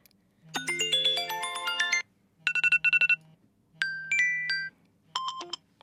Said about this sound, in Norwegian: jeg syns det er forferdelig ubehagelig å våkne opp eh, om morgenene eh, til lyder som eh, Ja, som rett og slett bare setter meg ut. For det er liksom Valget mellom eh, ringelåter da, på mobilen min er